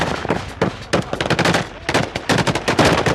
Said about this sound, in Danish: An IS drone was over our heads. The Peshmerga tried frantically to shoot it down. Then there were two.